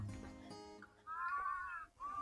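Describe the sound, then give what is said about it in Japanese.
A bird calls outdoors on a calm, windless, mild day of about 9°C in two drawn-out, slightly wavering cries, the first lasting almost a second and the second cut short, clear against a quiet background. “そら鳥も鳴きたくなるわ。”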